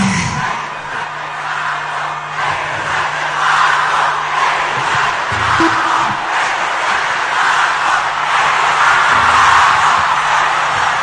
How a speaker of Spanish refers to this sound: lo que gritan es que se vayan los pacos, que es que se vayan los policías, que es una manera como despectiva también de hablar de los policías, es como que se vayan los tombos, es más o menos lo que estaban gritando ahí.